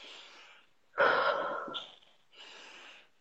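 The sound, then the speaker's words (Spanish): A voice imitates the nervous, heavy breathing of a young boy waiting in line to enter an exam: a soft airy exhale, then a loud sharp gasping intake with a rough edge, followed by another quieter breathy exhale. “Estaba respirando así de que y le temblaban las manos de que así a ese nivel de presión estaba”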